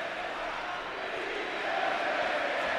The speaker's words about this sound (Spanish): pero ahora que está chuchando el Celta, pues ahí los escuchamos, alentando a su equipo en un partido clave por lo que puede ser la permanencia.